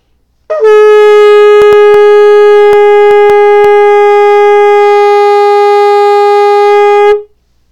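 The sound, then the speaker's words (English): A shofar is blown to demonstrate the tekiah, one long, steady note, loud and unbroken for about six and a half seconds with a brief rising attack, then stops abruptly; a few faint clicks occur during it. “Okay, so just to demonstrate, the tkia is one straight, strong sound, and listen for the emotion of it.”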